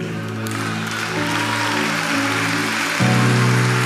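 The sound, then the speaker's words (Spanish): An audience applauds in a steady, dense wash of clapping for a few seconds, with a low droning hum running underneath that swells slightly louder toward the end. “Se dan un aplauso, no te está saliendo.”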